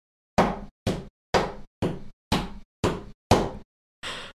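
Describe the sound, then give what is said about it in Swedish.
Eight hollow knocks in a slow, steady rhythm, imitating the footsteps of a small child walking in an attic, even in loudness, with the last one softer and duller. No voices. “Typ som att det är ett litet barn som är på vinden och går.”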